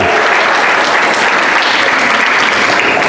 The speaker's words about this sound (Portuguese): Aplauda ele, irmão.